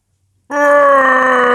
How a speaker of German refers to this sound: Ich bin richtig laut. Ich brülle richtig rum in der Wohnung. Ah, ich tue so, als würde ich schreien. Deshalb gehe ich nah ans Mikrofon ran.